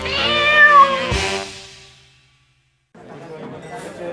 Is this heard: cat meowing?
yes